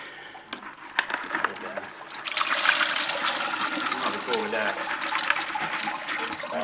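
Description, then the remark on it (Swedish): A blue mussel sample of several thousand mussels with much algae, taken from rocky bottom at three meters depth, is poured with water from a bucket through a series of sieves, a steady rushing splash that swells after a couple of seconds of quieter rustling and keeps going to the end. “Så nu häller jag det genom den här sållserien.”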